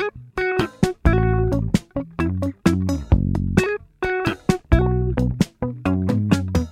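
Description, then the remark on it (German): An electric guitar plays choppy, stuttering notes through a small green Boss phaser pedal in step mode, giving a bubbling, warbling texture with abrupt pitch-shifting pulses, loud, with no voices. “In dem Fall ist es der Boss Phaser, dieses kleine grüne Pedal. Der hat so einen Step-Mode, dass es so komisch blubbert.”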